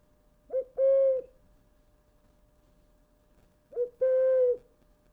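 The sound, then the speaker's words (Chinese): A plastic ocarina plays two owl-like hoots, each a short lead-in note followed by a longer steady tone, clear and fairly loud with a pause between them. “对对对，这好像就是陶笛，陶笛啊，但是它是塑胶的。”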